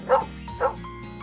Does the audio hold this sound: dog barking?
yes